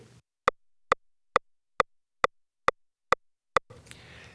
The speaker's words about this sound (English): One of the best things you can do for yourself when you practice is always use a metronome. Every Roland electronic drum set has one built in.